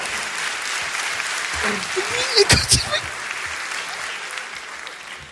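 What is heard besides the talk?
audience applause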